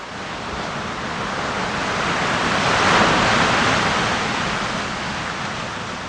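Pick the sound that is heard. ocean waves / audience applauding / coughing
ocean waves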